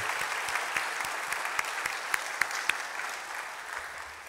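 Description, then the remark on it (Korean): A church audience claps together during a worship service in steady, sustained applause for several seconds, a dense patter of many hands with a few sharper claps standing out, no voices. “특별히 저희가 이 코로나 사태로 인하여서 온라인으로 예배를 드리면서 우리 찬양팀 그리고 또 2층에 멀티미디어 자막팀이 굉장히 수고를 뒤에서 많이 하고 계시는데 오늘 이 시간에 모처럼 우리 큰 박수로 좀 격려를 부탁을 드리겠습니다.”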